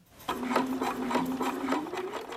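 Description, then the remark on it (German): A sewing machine bastes the hem of homemade trousers at a sewing table in a bedroom, running in a steady burst, its motor hum holding one pitch while the needle chatters in a quick, even rhythm, with no one talking. “Und um einfach zu gucken, ob mir die Länge so gefällt, wie ich mir das vorstelle, hefte ich den jetzt kurz mit der Nähmaschine.”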